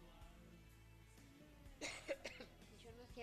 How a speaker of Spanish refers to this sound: esperen que estoy con tos y en cualquier momento me pongo a Hay que tomar agua.